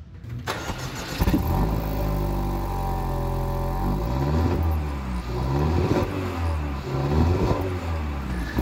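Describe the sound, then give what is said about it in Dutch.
A car with leather upholstery, navigation and a sports package has its engine started. It cranks and catches, then revs up several times, the pitch rising and falling with each throttle blip before settling into a steady, rumbling idle. No one speaks. “Ik wil het geluid heel graag horen. Ik ga hem starten voor je.”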